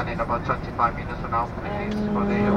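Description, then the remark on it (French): A steady airplane cabin engine hum drones continuously in the background while a person talks; a low, even tone grows more prominent toward the end. “je suis dans l'avion”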